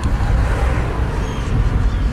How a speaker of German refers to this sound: Und wenn da mal ein Auto kommt, dann wackelt die Brücke und macht Katzum, Katzum